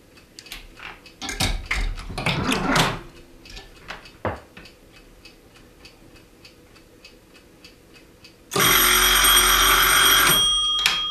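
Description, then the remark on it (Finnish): An old telephone from the time when calls were connected through a manual central exchange rings loudly and steadily near the end, a harsh continuous bell, after several seconds of steady mechanical ticking and a few clattering clicks, with no voices. “Olisi kiva kuulla, miltä kuulosti puhelu siihen aikaan, kun puhelut vielä yhdistettiin keskuksen kautta.”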